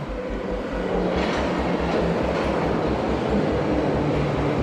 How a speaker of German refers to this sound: und setzte sich in den Zug in Richtung Bremen.